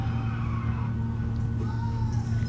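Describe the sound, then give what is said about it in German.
A steady, droning car engine hums continuously while brief whining tire squeals glide over it, like a racing video game car driving and skidding, loud throughout. “So, erstmal mit diesen komischen Autos spielen, äh, äh, fahren, die auch im Kaufland und so rumstehen.”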